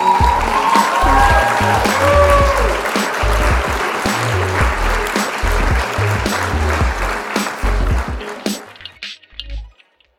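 A crowd applauds with dense, steady clapping for about eight seconds before it quickly fades out, while a rhythmic low thumping beat pulses underneath.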